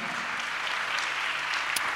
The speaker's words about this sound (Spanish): Dale un aplauso a Dios por eso, por esa maravilla.